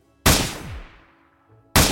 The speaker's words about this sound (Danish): To skud rungede ud i rummet. Lydene de bevægede sig rundt på slottet i meget, meget, meget lang tid.